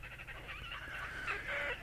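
A red-necked grebe gives a loud, harsh bellowing call, a nasal braying wail that runs nearly unbroken for about two seconds, close by, with no voices.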